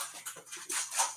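A cat playing fetch with a toy: scrabbling rustles and light clatters in quick irregular bursts, fairly loud, with no one talking.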